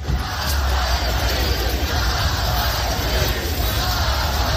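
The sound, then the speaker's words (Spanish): A large crowd of Russians of all ages at the funeral of Russian opposition leader Alexei Navalny in Moscow chants his name and shouts "no to war": a dense, steady roar of many voices holding a constant loudness throughout, with no single voice standing out. “Cientos de rusos de todas las edades coroando el nombre del opositor o incluso atreviéndose a gritar no a la guerra en referencia al conflicto, a la invasión en Ucrania, se han dado cita antes de una ceremonia que ha estado llena de incertidumbre”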